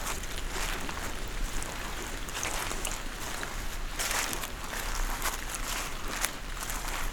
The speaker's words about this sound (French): Vous entendez, alors que la pluie a cessé, les gouttelettes d'eau qui dégoulinent le long des troncs et des branches de la hêtraie.